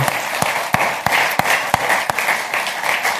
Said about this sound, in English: Would you thank the leadership team um, with just some applause? Because these guys are amazing